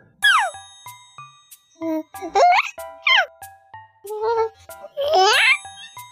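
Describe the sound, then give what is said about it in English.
A baby coos in a series of short, close vocal bursts that swoop up and down in pitch, building to a loud, high-pitched shriek near the end. “You know, uh, when baby coos, it usually ends in a shriek. It, it, goes higher in tone, and it ends in a very high shriek, like uh, like this.”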